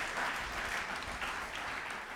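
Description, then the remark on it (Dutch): An audience applauds steadily to welcome a speaker to the front, a dense wash of many hands clapping at a fairly even level with no voices standing out. “Zullen we hem welkom heten met een applaus?”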